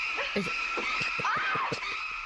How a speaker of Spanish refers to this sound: Están escuchando un cerdo en el, el sonido original.